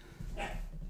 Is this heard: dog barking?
yes